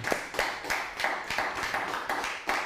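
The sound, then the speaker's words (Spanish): A crowd applauding, a dense, steady wash of clapping with sharper individual claps standing out at a quick, fairly regular pace throughout, with no talking over it. “Que se escucha y fuerte el aplauso.”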